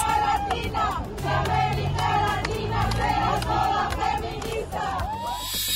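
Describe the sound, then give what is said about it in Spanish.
A large crowd of feminist groups celebrating, with a dense wash of many voices shouting and cheering together, rising and falling in loud waves with brief high whoops cutting through. “Pero también hubo festejos de colectivos feministas.”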